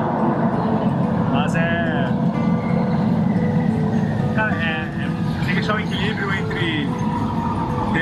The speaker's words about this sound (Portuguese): O trem tá chegando, é do outro lado.